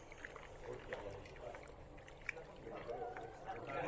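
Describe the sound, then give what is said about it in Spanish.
Water runs and splashes steadily as something is rinsed off, a soft continuous wash with small gurgles, fairly quiet, with faint voices in the background. “Se va con agua.”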